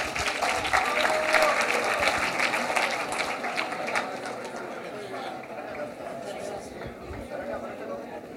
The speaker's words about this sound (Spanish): Sí, es él, venga, venga acá, vamos, vamos. Un aplauso, vamos.